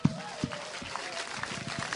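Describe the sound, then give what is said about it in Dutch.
An audience claps in a steady, dense patter of many hands, fairly soft and even throughout, with a few sharper individual claps and faint voices mixed in. “Geef hem een applaus.”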